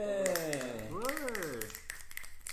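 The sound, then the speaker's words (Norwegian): A quick run of hand claps patters throughout, fairly loud, while a voice sings out a long wavering 'ooh' that rises and falls over them. “Ja, det er noe å klappe for, faktisk.”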